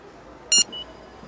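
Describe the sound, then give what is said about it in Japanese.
The IC card reader on a vending machine, touched with a Suica card, gives a short, bright, high-pitched electronic beep, followed by a fainter, briefer tone, over a quiet background with no talking. “私は自動販売機から目を離せなかった足は迷わずそちらへ向かい右手に持ったままのスイカカードを機械の方へ伸ばした”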